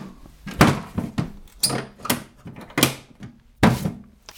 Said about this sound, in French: Je referme la boîte magique.